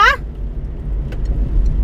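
Steady low rumble of a 2015 car driving in the rain, with faint hissy road noise like wet pavement and a few soft ticks. A brief voice fragment sounds right at the start.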